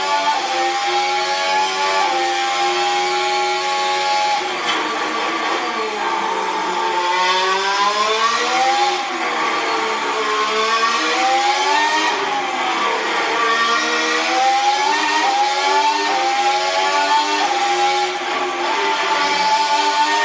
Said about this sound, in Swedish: det här är eh, Sergio Perez eh, ett halvt varv ungefär på eh, Jas Marina Circuit